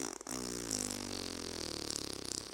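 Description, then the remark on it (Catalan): A person blows a long, buzzy raspberry with their lips, imitating a fart. The sputtering sound is fairly loud, holds steady for about two seconds, with no talking. “Haig de fer un soroll de pet, ara.”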